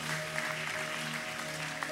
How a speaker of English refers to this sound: Keep clapping, church. Come on, keep clapping for them.